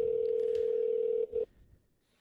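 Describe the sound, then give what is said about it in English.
A steady, mid-pitched telephone ringing tone of an outgoing call to a friend at about 1 o'clock in the afternoon hums for over a second, cuts briefly, returns for a short burst, then stops, leaving quiet line noise. “so let me call him up so far i'm 0 for 3”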